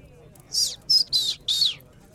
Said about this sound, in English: The old bird whistles to grab Jack's attention.